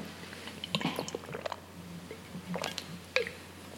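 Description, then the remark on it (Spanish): Someone drinks water: soft wet sips and swallowing gulps with small mouth clicks, quiet and intermittent, with no talking. “pues ser también un mientras, mientras bebo agua.”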